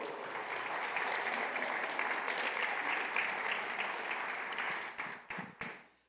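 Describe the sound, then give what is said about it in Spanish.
A church audience applauds for the Lord after reciting Psalm 27 together: dense, steady clapping for about five seconds, then it thins into a few scattered claps and fades out. No one speaks over it. “Tome su lugar y denle un aplauso al Señor.”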